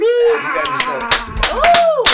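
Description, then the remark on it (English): A canned clap sound effect: several sharp, bright smacks at uneven intervals, mixed with voices and tonal, wavering vocal sounds running underneath throughout. “We're gonna do we got the fake clap.”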